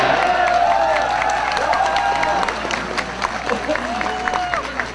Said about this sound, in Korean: 박수.